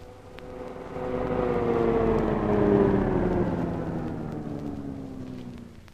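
A car's engine hums louder, its pitch sliding steadily downward as it slows, then idles and fades toward a stop as it pulls up at a home. No voices are heard.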